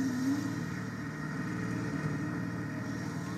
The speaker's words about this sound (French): Le vrombissement monta en intensité et en proximité. Il semblait m'entourer. Je savais que la chose qui causait ce bruit était devant, se rapprochant.